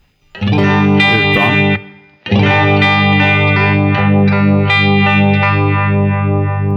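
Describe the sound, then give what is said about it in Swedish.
An electric guitar through a Uni-Vibe pedal plays loud, sustained overdriven chords with a swirling, throbbing modulation, first a short phrase, a brief pause, then a longer ringing passage. “Ja, och då får man ändå mer av det här Univibe-vibben, i och med att man får bort det, swooshen.”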